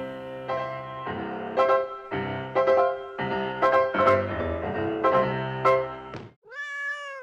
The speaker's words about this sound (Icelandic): Þessi litla læða hún heitir því eðla nafni Tinna Sigriður